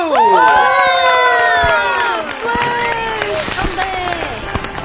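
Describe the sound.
Several high-pitched voices whoop and cheer together in loud, overlapping gliding shouts, with scattered sharp hand claps throughout, celebrating the release of a new album. The burst stays strong for about five seconds, easing slightly toward the end.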